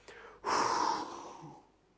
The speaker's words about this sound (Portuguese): Deixa o ar sair. Dessa forma, você vai ficar mais relaxado. Tá bom? Respirando dessa forma. Expiração forçada também funciona como relaxamento.